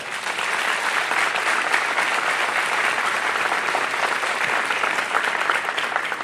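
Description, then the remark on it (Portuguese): An audience applauds the Lord, a dense, steady wash of many hands clapping at an even loudness for about six seconds, with no voices standing out. “Aplaudir o Senhor, Ele está nesse lugar.”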